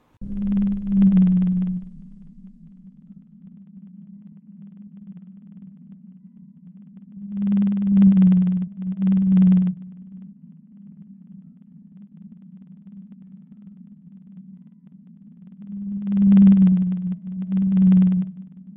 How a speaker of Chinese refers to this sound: 你听过蓝鲸的声音吗？蓝鲸作为世界上体型最大的哺乳类动物，让我们来听看看人类透过仪器捕捉到的蓝鲸声音吧。